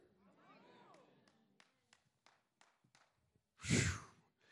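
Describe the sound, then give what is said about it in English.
A voice speaks briefly, then scattered sharp clicks, followed by a short, loud, breathy collective response from an audience, an indistinct 'amen' or 'ooh' lasting about half a second. “I don't know if that was amen or ooh.”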